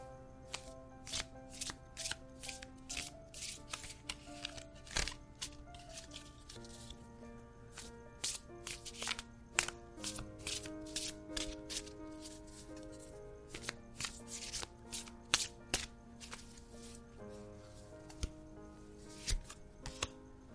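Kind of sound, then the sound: household object, shuffling tarot cards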